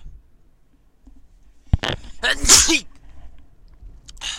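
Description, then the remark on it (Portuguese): A single loud sneeze bursts out after a brief sharp intake of breath, then fades into quiet with a faint rustle at the end. “Aí tem que espirrar malta um bocadinho.”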